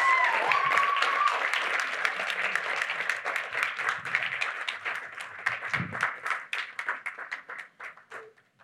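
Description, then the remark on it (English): Audience applause as speakers are invited up to tell their stories: a dense, steady patter of many hands clapping that gradually thins out into scattered individual claps before fading, with a brief high whoop early on. “So if you could come up, we could give them a bit of a round of applause.”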